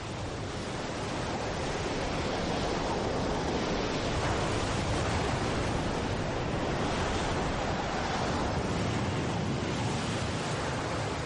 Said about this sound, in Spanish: Normandía no había visto una tormenta semejante desde hacía 40 años. En los fondeaderos, los barcos sufrían los embates del mar.